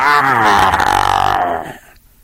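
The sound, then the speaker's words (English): A person imitates a tiger's charging roar: one loud, full-throated, rasping growl held for under two seconds, then cut off abruptly into near silence. “The purr grew louder and ended in the full-throated”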